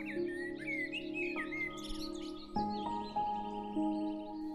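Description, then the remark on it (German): Birds chirp and twitter in quick bright phrases over a summer meadow, strongest near the start, over a steady, soft sustained musical drone that continues throughout. “Du hörst die Vögel zwitschern, Insekten summen und du läufst leichtfüßig über die Wiese.”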